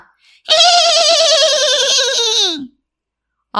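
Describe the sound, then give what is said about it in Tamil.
A person imitates a horse's neigh: one loud, quavering whinny held for about two seconds, its pitch wobbling rapidly before sliding down at the end. “அப்படின்னு கணச்சுச்சான்”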